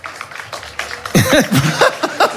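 An audience votes by applause on a question: a crowd claps briefly, then breaks into loud whoops and high, swooping cheers over continued clapping.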